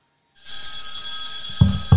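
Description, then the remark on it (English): A phone rings with a steady, bright electronic trill that starts abruptly and holds continuously, loud, with a couple of low thumps near the end. “Jesus, is that my phone?”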